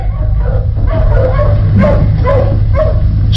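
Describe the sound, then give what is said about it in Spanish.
Wolves bark over and over in a steady, fairly loud series of about seven calls, each short and yelping, with a low rumbling drone underneath and no voices, as the wolves move away toward the moors. “Solín continúa inmóvil escuchando los ladridos de los lobos alejándose hacia los páramos”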